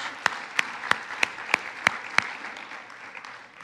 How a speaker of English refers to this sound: As you're seated, give them another applause.